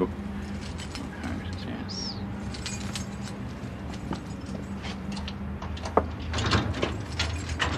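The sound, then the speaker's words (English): Keys jingle and scrape as a key is tried in the door lock of the book house, a building where memorial books are kept, with scattered metallic clicks and rattles over a steady low background hum. “If I can find the right key, there's so many key”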